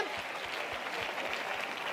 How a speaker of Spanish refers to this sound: dele el aplauso fuerte al Señor.